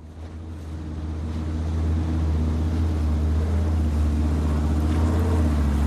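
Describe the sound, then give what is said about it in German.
A small motorboat's engine drones steadily, swelling in the first two seconds and then holding a constant low hum over a wash of water and wind noise, as a biologist drives the boat into the bay in Glacier Bay National Park, Alaska, USA. “Biologin, wie sie mit einem kleinen Boot in die Bucht fährt.”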